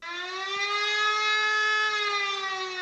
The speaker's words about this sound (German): So hört er sich an, der Alarmton zur Warnung der Bevölkerung im Katastrophenfall. Ihn kennen die Bürger im Kreis Groß-Gerau nur von einem Probealarm, den es zweimal im Jahr gibt.